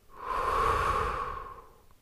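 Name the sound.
breathing out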